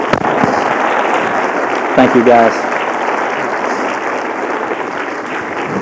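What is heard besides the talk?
audience applause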